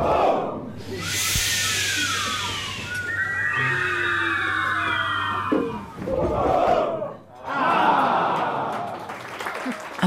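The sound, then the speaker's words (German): A large crowd rises from their seats for the so-called Feuerwerk (firework) ritual, stamping feet briefly and hard and hissing as raised arms sink: loud, sustained waves of roaring and hissing, scattered thumps of stamping feet, shrill whistles and a brief lull before the noise swells again. “Alle erheben sich von ihren Sitzen, trampeln kurz und heftig mit den Füßen, heben die Arme hoch und lassen sie langsam sinken, während sie einen Zischlaut von sich geben.”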